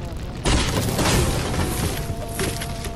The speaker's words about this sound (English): If you're in here, stay away from the door. I'm going to break it down.